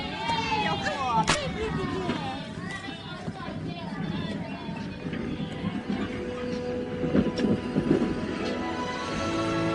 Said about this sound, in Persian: زود باشید شیطونا قطار داره حرکت بگیر. می‌کنه.